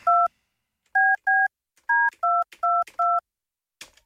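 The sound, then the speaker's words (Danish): A quick run of seven touch-tone telephone beeps as a phone number is dialed to call colleagues, each a short clear dual-tone press with brief pauses between, followed by a soft click, with no talking. “Sådan, så prøver vi at ringe.”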